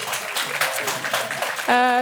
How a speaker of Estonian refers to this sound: hurraa, absoluutselt aplausi väärt.